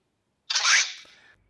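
A single loud, close slurp of coffee being sucked hard off a spoon, a hissy airy rush that swells quickly and trails off after under a second, with no voices around it.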